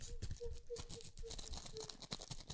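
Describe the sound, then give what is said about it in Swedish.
Thin tissue paper, fine gift-wrap paper with a small emblem on it, rustles and crinkles as it is pulled out, a continuous soft crackling with quick irregular bursts as it is handled, while a faint voice hums or murmurs underneath. “Det är så här fint sådär ah. presentpapper.”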